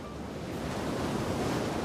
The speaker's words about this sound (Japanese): ここイギリスエセックス州はただいま14時沖合にある48機の風車が北海の強い風を受け今まさに発電しています